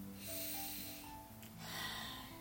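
A slow, deep breath drawn in during a guided prayer breathing exercise, a soft airy rush with a faint nasal, snort-like edge, quiet, swelling twice over a couple of seconds with no talking.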